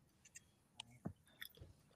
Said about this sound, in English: Wait, what? I'm sorry, I couldn't hear you over my chewing.